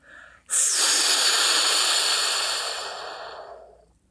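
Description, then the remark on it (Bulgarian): A person blows hard into the mic to imitate a strong gust of wind: a brief breath, then one long, loud, breathy whoosh lasting about three seconds that slowly fades. No talking. “Задухало силно.”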